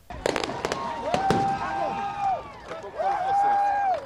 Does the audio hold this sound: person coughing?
no